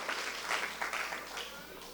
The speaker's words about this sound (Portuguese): Aplauda Jesus.